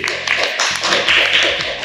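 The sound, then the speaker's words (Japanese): An audience applauds an audience member's correct answer about STEAM education. Many hands clap at once in a dense, continuous patter that holds steady and fairly loud for about two seconds, with no voices over it. “ちょっと拍手してください。”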